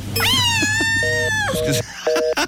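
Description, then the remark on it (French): A cat gives one long, drawn-out meow, rising and holding before trailing off, with a few faint beeps and a brief murmur around it. “c'est quoi ce bruit de chat”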